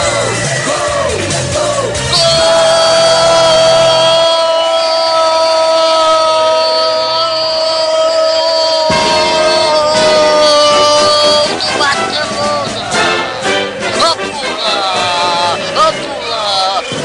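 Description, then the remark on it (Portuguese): A crowd of Barcelona supporters roars loudly and steadily throughout a football match, while a man's voice holds a long, sustained shout over the din, then breaks into excited speech as the cheering continues. “Pode pular torcida do Barcelona!”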